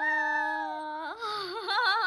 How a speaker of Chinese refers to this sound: 对，这就是我生日的小确幸，就是跟我家小狗一起合唱到“祝你生日快乐”这条歌、这首歌了。